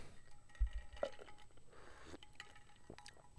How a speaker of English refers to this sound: Grab my coffee because it's so fucking far away from me.